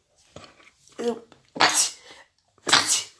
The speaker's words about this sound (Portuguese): Desculpa, eu tô espirrando um pouquinho, vou espirrar mais ao longo desse trem.